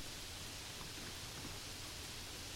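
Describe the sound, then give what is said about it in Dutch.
A steady, soft hiss of rain falling outside, continuous and even with no distinct drops standing out, heard alone without any voices. “Hé, hey, hoor je dat? Wat is dat geluid? Het regent buiten.”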